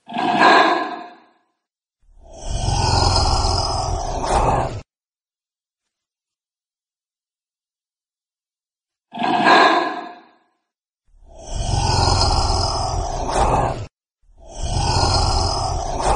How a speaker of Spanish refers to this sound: ya después de, escuchar cómo nos hablan nuestros amiguitos los lagartos